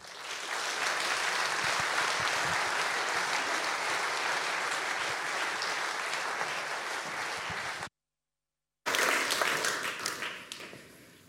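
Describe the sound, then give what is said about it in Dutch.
An audience at De Rode Hoed in Amsterdam applauds Minister of Foreign Affairs Sigrid Kaag, a dense, sustained wash of many hands clapping at even loudness. It cuts out for about a second, then resumes briefly before tapering off. “Dames en heren, graag u aandacht aan uw applaus voor mevrouw Sigrid Kaag.”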